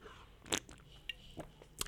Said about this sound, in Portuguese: E já agora, deixa-me dar um golinho.